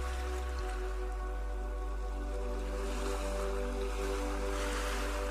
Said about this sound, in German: Du stehst nun knöcheltief im Wasser und beobachtest den Wellengang. Beobachte einmal, wie die Wellen vor dir brechen wie das Wasser bis zu deinen Füßen fließt und wieder zurück ins Meer fließt.